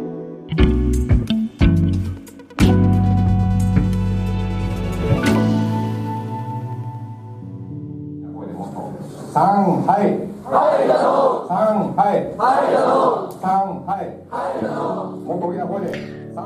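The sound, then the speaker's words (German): Opening bright musical chords give way to a crowd of students dressed in white, in a lecture hall of Konan University in Japan, raising their arms in the Hitler salute and loudly shouting “Heil” in unison, with repeated chanted bursts of many voices. “Wir sind an einem Hörsaal der Konan-Universität in ähm, Japan und sehen eine Menge Schüler, alle in weiß gekleidet, die den Arm und die Hand zum Hitlergruß heben und Heil schreien.”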